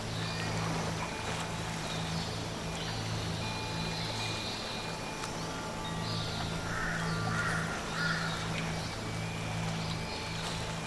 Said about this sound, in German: in dem Wasserwald, hört sie die Vögel und Tiere und Pflanzen ganz anders als in den Wäldern